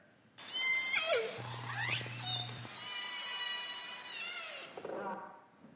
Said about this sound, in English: This is the sound of orcas off the coast of Vancouver.